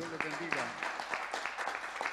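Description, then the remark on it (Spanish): Audience applause during a Mother's Day sermon, a steady, dense crackle of many hands clapping throughout, with a brief voice audible at the very start. “Bueno, algunos están aplaudiendo. ¿Qué tal si todos aplauden?”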